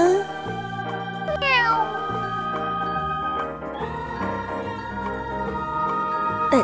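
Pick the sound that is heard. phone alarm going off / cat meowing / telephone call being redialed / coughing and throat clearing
cat meowing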